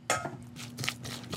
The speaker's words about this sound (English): Black pep going in. I'm adding a little pickle brine in.